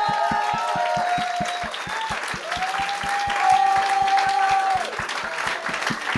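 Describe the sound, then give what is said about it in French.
A live audience applauds and cheers loudly for about six seconds as guests Kim Lévesque and Louis Morissette are introduced, a dense, steady wash of clapping with long sustained whoops rising above it, over a fast, regular low thumping beat. “Mesdames et messieurs, faites du bruit pour Kim lévesque autres et Louis Morissette.”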